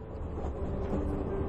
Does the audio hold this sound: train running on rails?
yes